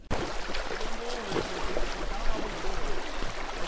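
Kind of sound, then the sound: nature, river water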